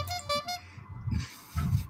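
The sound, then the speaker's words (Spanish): A horn honks several times in quick succession, short brassy blasts, fairly loud, with a few rougher, lower bursts following, and no one speaking. “Cuidado la bocina que al final la vas a romper.”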